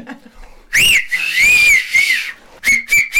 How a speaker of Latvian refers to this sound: Man pašam ir viens ļoti stiprs svilpiens. A, es nemāku piemēram. E, jā, pirksti. Bet tas man ir talants uz to.